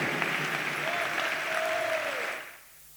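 An audience claps steadily in a dense, continuous wash of applause for the Heavenly Father for about two seconds, a faint sustained tone riding over it, before the clapping quickly dies away into quiet.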